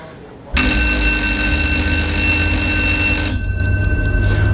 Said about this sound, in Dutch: En op het moment dat de zoomer nogmaals klinkt, is de 60 seconden voorbij.